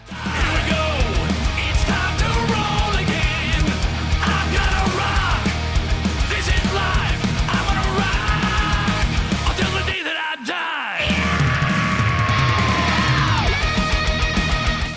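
Loud, dense hard rock with distorted guitars, pounding drums and a shouted, gritty lead vocal, driving steadily before a brief stop-start break near the end, then crashing back in.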